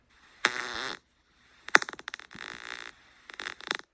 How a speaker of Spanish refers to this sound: Este es uno de los primeros sonidos de colocación de una vaquita, que fueron grabados por un barco de investigación en el 2015.